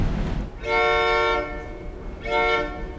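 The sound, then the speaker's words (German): The Rocky Mountaineer passenger train rumbles along the tracks through the Rocky Mountains in Canada while its horn sounds two long, loud blasts, one after the other, with a low mechanical roar underneath and no talking. “Ich freue mich, viele Gäste aus Deutschland hier im Rocky Mountaineer Train zu begrüßen.”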